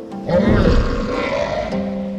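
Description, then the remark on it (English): A deep, growling roar of the Typhon, a giant, winged, snake-like monster, swells in abruptly and rumbles on for about two seconds, loud, with a rough, guttural texture and no one speaking. “He's a giant, ugly, serpentine, uh, uh meaning snake like, monster with wings and hundreds of dragon heads for arms.”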